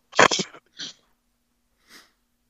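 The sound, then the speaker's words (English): A single loud sneeze bursts out, followed by a short breathy exhale and, after a pause, a faint sniff. No talking. “Excuse me.”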